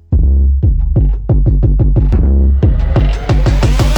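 A pop song's intro opens with loud, punchy bass-heavy beats in a steady rhythm, then fills out with brighter layered instruments partway through, with no singing or talking yet.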